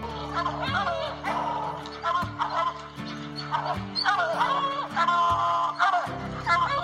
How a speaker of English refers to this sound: Good dog, get that bird. Get that bird here.